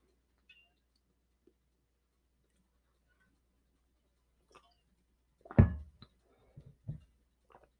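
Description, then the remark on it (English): Someone takes a sip of water: a short, fairly loud slurp, then a softer gulp, with faint clicks scattered across an otherwise quiet stretch. No one speaks. “I took a sip of water. Let's take one. Let's take another one together.”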